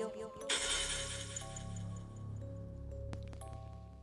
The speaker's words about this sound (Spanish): Entonces tomé una botella de vino que tenía abajo de mi cama y empecé a darle con él. A la muñeca. la botella se rompió.